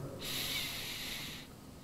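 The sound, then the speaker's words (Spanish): A single deep, forceful exhale during a guided breathing exercise, a breathy rush of air lasting about a second, fairly loud, with no talking over it. “Otra vez. Exhala.”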